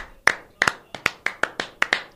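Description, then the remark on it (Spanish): A brief round of hand clapping for an operator, the day after Operator's Day: about nine sharp, crisp claps in a loose, uneven rhythm, moderately loud and bright, with no one talking over them. “Otro aplauso.”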